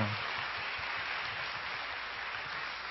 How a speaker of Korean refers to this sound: 할렐루야. 우리 다시, 사, 다시 한번 우리 살아계신 하나님께 감사와 찬양의 박수 올려드리시겠습니다. 주님을 찬양합니다.